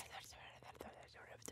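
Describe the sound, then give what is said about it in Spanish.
Eerie, breathy whispering in short hissing bursts, airy and unvoiced, running for a second and a half at a soft, steady level with a few sharper sibilant peaks. “No, era más como susurritos.”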